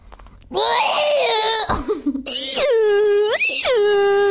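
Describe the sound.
A man lets out loud, piercing falsetto shrieks, imitating a girl's scream: one long wavering cry, a brief break with vocal noises, then a second sustained shriek that jumps higher in pitch.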